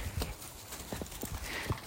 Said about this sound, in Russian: Кстати, вот звуки, которые на фоне, это бегающая собака, которую зовут Анука.